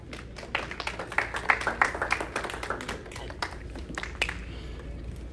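An audience breaks into applause, a dense patter of many hands clapping that swells over the first couple of seconds, then thins out and fades, with a few scattered claps at the end.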